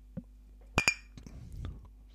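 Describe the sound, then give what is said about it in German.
Two bright glass clinks ring out in quick succession, fairly loud, as glasses are clinked in a toast, followed by faint soft rustling and handling sounds. “Prost.”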